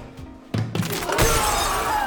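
A glass panel shatters loudly: a couple of sharp cracking impacts, then a sustained crash of bright, tinkling fragments that keeps ringing and scattering until the end.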